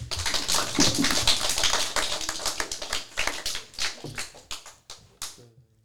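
A short burst of applause from a small group, dense hand claps at first that thin out into a few scattered claps and fade away within about six seconds, applauding a first segment on Pressé Radio.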